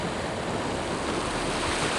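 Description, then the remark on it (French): Big ocean waves crash and churn toward rocks in a continuous, loud roar of surf, with a steady rush of wind-blown water filling the whole moment and no voices. “Des grosses vagues la propulsent irrésistiblement vers des rochers éruptant des cuves.”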